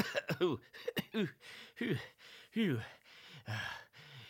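A voice imitates two teddy bears coughing and sputtering in a run of short, hoarse bursts with breathy, spitting sounds between them, fairly loud, lasting a few seconds.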